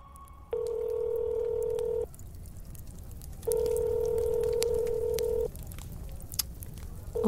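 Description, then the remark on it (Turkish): A phone call placed around 11:30 rings out unanswered: steady, mid-pitched ringback tones, each about two seconds long, separated by pauses, with a third tone just beginning at the end. No one speaks. “11.30 civarında Helen, Mary'i aramaya karar verdi.”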